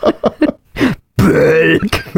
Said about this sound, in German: dann würde das Ding nur einmal im Monat rülpsen